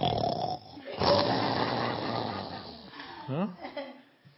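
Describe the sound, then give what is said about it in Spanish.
A person imitates loud snoring with the voice, a drawn-out rasping snore followed by a few shorter snorting breaths near the end, fairly loud. “¿Quién ronca tanto que no me deja dormir?”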